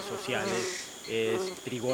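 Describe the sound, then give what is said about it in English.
Tiny stingless bees buzz in overlapping, wavering drones that rise and fall in pitch as they circle a sweating person in jungle heat, seeking salt; a steady insect hum with no talking. “Tiny little bees, they don't have stings, and they're after the salt”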